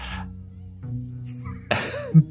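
A single sharp sneeze bursts out after a quiet stretch, a sudden breathy explosion that trails off with a short voiced tail.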